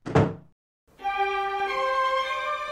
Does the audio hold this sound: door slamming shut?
yes